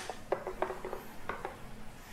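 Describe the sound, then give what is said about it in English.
A handful of short clicks and light clattering knocks, irregularly spaced, as a container of food in a soy sauce and spice soaking liquid is covered and put in the fridge, then quiet with no one speaking. “I'm just gonna cover it and put it in the fridge.”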